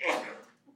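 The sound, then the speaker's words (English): A single sneeze from someone in an audience, a sudden breathy burst that fades quickly, with no other sounds around it. “Bless you.”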